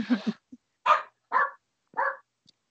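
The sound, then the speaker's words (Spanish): A dog barks several times in short, evenly spaced bursts, moderately loud, with brief silences between each bark and no talking. “El perro empezó a dar.”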